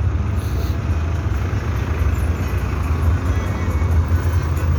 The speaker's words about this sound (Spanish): Y me puse a ver todo, ¿no? pasaban los carros por detrás.